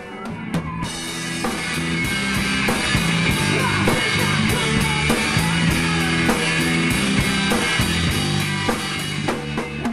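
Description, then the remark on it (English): A loud, fast rock band plays a cover of a ballad with screamed, yelling vocals over pounding, steady drums and a dense wall of distorted guitar that never lets up. “You know, as long as it's fast and kind of loud”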